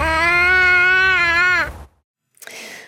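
An eight-month-old baby lets out a long, loud, wavering wail, which breaks off into silence before a brief, softer rustle or breathy sound follows.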